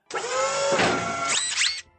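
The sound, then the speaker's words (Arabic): A robot cleaning a table after a meal runs its motor in a steady mechanical whirring for about two seconds, with rising and falling whiny pitch sweeps near the end, then cuts off abruptly. No voices. “أنهي تناول الطعام وانطلق روبوت لتنظيف الطاولة”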